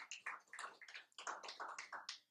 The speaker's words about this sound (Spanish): Vean ese hombre bello y hermoso que estén ahí. Dele un fuerte aplauso por este bello hijo que está aquí hoy aquí.